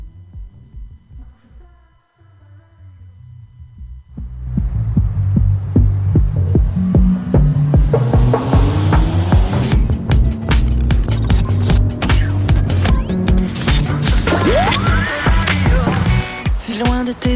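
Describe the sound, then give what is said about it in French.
A pop song intro from a recently released single opens with a soft, sparse melodic line, then about four seconds in the full band kicks in with steady, punchy drums and a bright, loud, dense arrangement. “un des deux singles qu'il a sorti, ça s'appelle …, donc je pouvais pas passer à côté”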